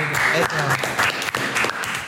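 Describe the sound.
A crowd breaks into steady applause, dense overlapping claps filling the whole two seconds at a loud, even level, with a few voices calling out beneath the clapping.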